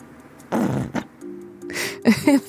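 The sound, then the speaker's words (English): A ketchup bottle is squeezed: wet, sputtering squirts, several spluttery bursts with brief gurgling tones, ending in a loud final splutter. “Like, the only word I can think of it is like a ketchup bottle, like squirting. Yes, that was definitely the sound of ketchup.”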